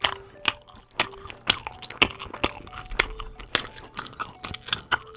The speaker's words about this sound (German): Soll ich nochmal kauen? Ich hab noch, ein, ja. hab noch was übergelassen.